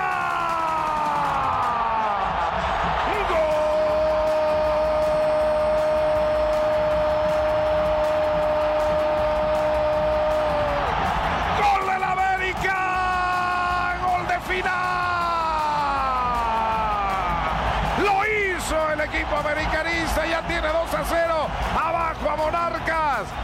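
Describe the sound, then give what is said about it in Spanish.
A stadium crowd at Estadio Azteca erupts after Club América's goal, a header by Uruguayan forward Viñas, a loud sustained roar with yelling voices and long wailing horn-like tones that rise and fall over it, staying dense and intense throughout. “Minutos más tarde, la tribuna explotó cuando las Águilas llegaron al gol por conducto del delantero uruguayo Viñas, quien con certero cabezazo envió el balón al fondo de la portería.”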